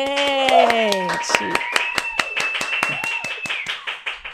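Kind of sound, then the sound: crowd, round of applause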